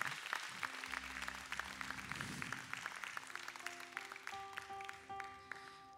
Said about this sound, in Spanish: Así que iglesia, te quiero invitar, dale tú todo el aplauso y toda la gloria a Dios, que Él está al tanto de tu vida.